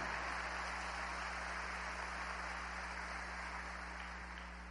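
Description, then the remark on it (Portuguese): A church audience applauds for Jesus during a sermon in a steady, dense wash of clapping that sounds muffled, lasting the whole stretch over a low electrical hum, with no one speaking. “Se é para Jesus, pode aplaudir, aleluia.”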